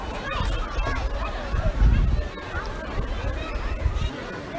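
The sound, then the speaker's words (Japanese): A busy outdoor hubbub of many voices, children and adults chattering, blended with a steady wash of running water, continuous and moderately loud throughout, at the water plaza playground of Andersen Park, which has water play equipment. “どうですかこの周りの音聞こえますかすごいざわざわとした人の賑わいと水の音が聞こえるかもしれません”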